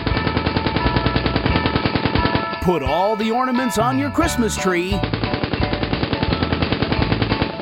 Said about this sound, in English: Using a converted M60 fully automatic machine gun, the John Rambo Christmas Decorating Company can put up your outside Christmas lights,